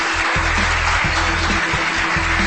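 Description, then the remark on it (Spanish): Steady, dense applause for a winner fills the whole stretch, a continuous hiss of many hands clapping, with a low rhythmic hum pulsing underneath and no voices. “Aplausos aplauso para él, al feliz ganador.”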